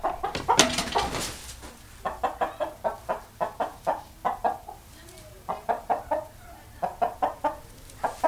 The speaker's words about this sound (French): c'est le coq qu'on entend qui enfin, il, il, caquette un petit peu